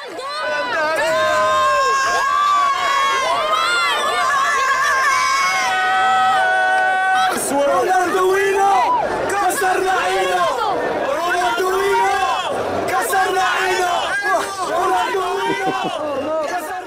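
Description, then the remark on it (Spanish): A large crowd of Moroccan fans chants and sings in unison, many voices rising and falling together in a loud, continuous roar of melodic shouting and cheering. “No entiendo lo que están diciendo, pero se oye bonito me están echando la madre, la suya por si acaso, pero por ahora.”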